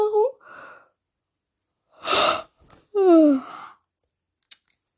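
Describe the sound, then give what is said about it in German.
A person yawns: a loud breathy intake followed by a drawn-out, falling voiced groan, with brief murmured vocal sounds just before and a small click at the end. “Sorry, dass ich schon wieder gähnen, gehen musste.”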